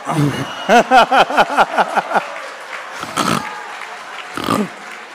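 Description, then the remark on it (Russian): A voice imitates a young lion's roar: a rapid run of about eight loud, throaty grunting pulses, then two rougher, isolated growls after short pauses. “А это, это называется рык молодого льва.”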